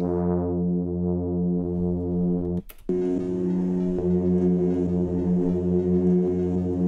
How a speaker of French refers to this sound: Ça, il le génère sur son mini-moog oh, avec deux oscillateurs sur un Fa dièse.